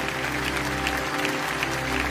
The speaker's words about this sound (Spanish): Ahora, sí, te, pusiste de pie, que se escuche de verdad ese aplauso aquí en casa, en los cinco continentes.